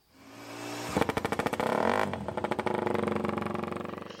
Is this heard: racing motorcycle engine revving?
yes